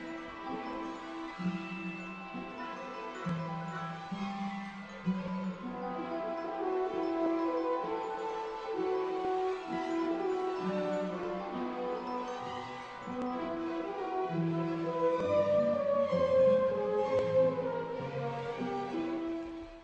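Orchestral film score music from Harry Potter and the Chamber of Secrets plays throughout. It has rich sustained chords and a shifting melodic line over low strings, steady and moderately loud, swelling slightly toward the end with no voices.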